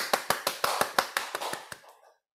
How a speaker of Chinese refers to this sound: 好好好好好，来替他们鼓掌。